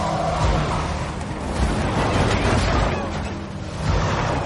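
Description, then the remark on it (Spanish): The heavy engines of two yellow trucks roar loudly and steadily, a dense rumbling wash of noise that swells a few times as the trucks accelerate and drive in through a breach, with no voices. “Dos camiones amarillos aceleran y entran por la brecha.”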